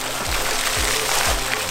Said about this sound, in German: Unterdessen plätschert die Ahr unablässig weiter über Sinzig zum naturgeschützten Mündungsgebiet, wo sie, umgeben von seltenen Pflanzen und Vögeln, nach 89 spannenden Kilometern in den Rhein fließt.